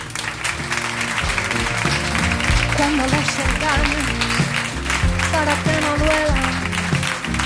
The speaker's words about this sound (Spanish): Un aplauso para ellos dos.